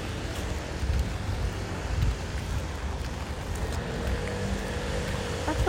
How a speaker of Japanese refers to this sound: うんまあ、とりあえずこんな状況です雨降ってます